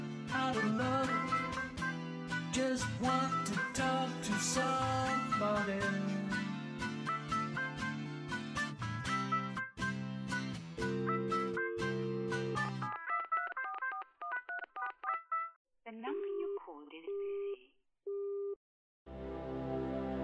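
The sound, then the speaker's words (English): Loud music fades out, then a rapid run of phone keypad tones beeps in quick succession as a man dials a number on a phone taken from his pocket, followed by a repeating on-off busy-line tone near the end. “He begins to dial.”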